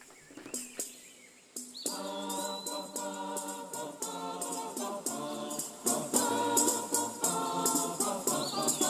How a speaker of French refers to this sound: Notre version est assez supérieure quand même, je trouve. Les chants d'oiseaux, ça fait tout.